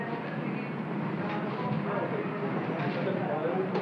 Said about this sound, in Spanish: ¿Escuchas eso? Ese es el soundtrack de un mall.